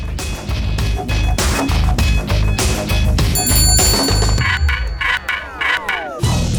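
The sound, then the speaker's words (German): A small bell above a shop door rings with a bright, high jingle midway through, its tones ringing on briefly over a dense, busy background of clattering noise. “Als die kleine Glocke über der Tür in einem hohen Ton wimmelte, wandte er sich möglichst unauffällig um.”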